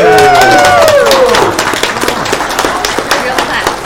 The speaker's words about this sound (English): Real claps. Real claps. I will be honest with you. Sometimes you guys hear claps, and those are those are being produced by a button. Not today. Those are actual real claps.